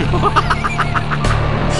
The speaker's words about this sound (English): the rear doors to the armored car slam shut, revealing a painted Joker face. Before Batman can respond, the armored car pulls away.